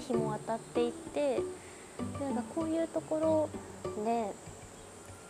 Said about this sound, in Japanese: なんか今とかも綺麗じゃないですか、はい、景色緑がすごい、緑の色が綺麗でセミの声も聞こえてきて